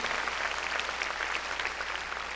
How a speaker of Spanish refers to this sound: Démosle palmas a los hermanos ahí, a los hermanos que lo hicieron.